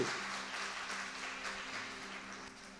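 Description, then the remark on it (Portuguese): A crowd applauds steadily for a few seconds as praise to God, a dense wash of clapping at moderate volume over a faint low hum, with no one speaking. “Se você é um sucesso, dá uma salva de palmas a Deus, porque Ele te fez para ser um sucesso.”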